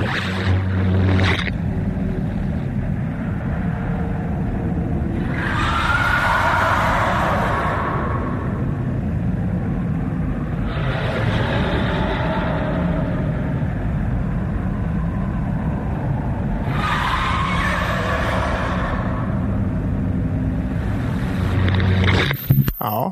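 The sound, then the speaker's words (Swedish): A monstrous moaning sound over a constant deep, roaring rumble, with eerie wailing cries rising and fading about every six seconds, loud, with no talking. “alltså ljudet funkar och då är det riktigt så eh, gruesome eh, morning och skrik eller så här. Som ett, som ett jäkligt elakt monster helt enkelt.”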